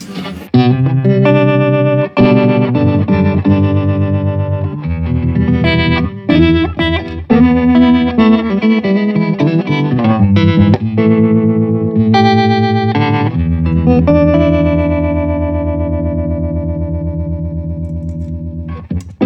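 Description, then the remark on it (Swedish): An electric guitar played through an effects unit in a brownface-style amp mode, warm and slightly driven with a wavering modulation, chords and single notes ringing out loudly with no talking. “Och det där var brownface-läget.”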